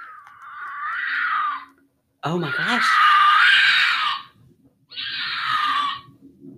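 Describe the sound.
An animal lets out three long, shrill, eerily human-like screams, each lasting about a second or two, loud, with a person briefly exclaiming over the second one.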